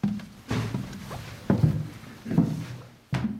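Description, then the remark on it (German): Heavy footsteps of a pastor climb the steep wooden stairs of a church bell tower up to the belfry, four dull, hollow thuds landing at a slow, steady pace, each with a brief creak or scuff. No one speaks. “schließt die Tür zum Glockenturm auf und steigt die steile Holztreppe nach oben in den Glockenstuhl.”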